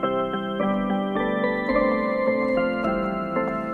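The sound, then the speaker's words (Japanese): Bright, sustained chords played on an instrument as an accompaniment in the feel of Rentaro Taki's 'Haru no Urara no', changing roughly every half second in a steady progression, ringing out loudly with no one talking. “え明るい感じのなんか和音を抑えてよ。”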